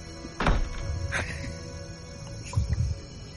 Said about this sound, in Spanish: Tú, la escucha perfectamente cómo se cierra una puerta, ¿vale? Sí, eh, desde la derecha, ¿no? Desde el pasillo, sí.